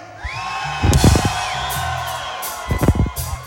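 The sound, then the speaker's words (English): A crowd cheers loudly, with whoops and shrill whistles rising over a steady roar, punctuated by bursts of clapping and shouts near the start and again toward the end. “I want y'all to make some noise”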